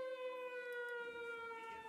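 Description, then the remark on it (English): A loud, shrill prison siren wails steadily as a gang makes a break from the prison, its piercing tone held without a break, with no voices heard. “At that moment, the shrill blast of the prison siren is sounded.”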